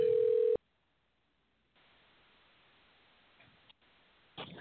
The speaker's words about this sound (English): So we're going to dial her right now and see if we can get her on the line. Fingers crossed. Let's hope this works. Here we go.